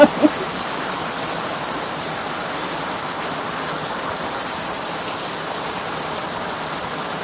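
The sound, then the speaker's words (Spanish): Steady rain falling, a dense continuous hiss of drops that holds even and unbroken throughout, with a couple of brief clicks at the very start and no voices. “Ay, dice Miriam Mateo, que qué hermoso se escucha el sonido de la lluvia, sí.”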